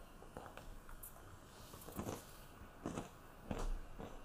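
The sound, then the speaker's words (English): Chewing of walnuts and raisins, with soft irregular crunches and moist mouth sounds repeating every half second or so, fairly quiet, and no talking. “walnuts and raisins. Really yummy.”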